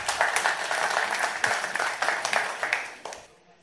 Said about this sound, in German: So, kommen wir ähm, erstmal Applaus.